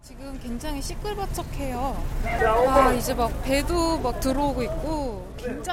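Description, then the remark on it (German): Bustle of a busy fishing harbor's fish market on the quay as fishing boats keep arriving: many overlapping voices chattering and calling out over a steady wash of background noise, swelling to a louder burst midway. “Fischerboote laufen kontinuierlich in den Hafen ein, während am Kai der Fischverkauf auf Hochtouren läuft.”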